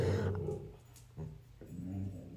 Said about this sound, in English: that would be my dog barking, sorry.